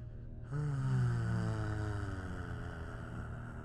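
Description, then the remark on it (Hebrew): Several voices hum a low, sustained tone of release together on a long exhale after a deep, held breath. The tone starts abruptly and slowly fades, with steady harmonics and a breathy, droning quality. “וביחד נוציא צליל של הנחה.”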